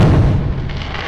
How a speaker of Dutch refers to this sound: Maar vroeger was ik echt als de dood voor al dat vuurwerk.